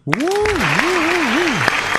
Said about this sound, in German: auch hier äh, großartiger Applaus an der Stelle auf jeden Fall.